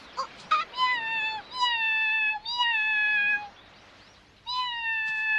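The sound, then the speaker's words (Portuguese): A cat meows repeatedly in long, drawn-out tones, three or four sustained cries with brief pauses between them, the last after a longer gap. “Pode dando fora, gatinho, e aproveita que eu tô calmo, hein?”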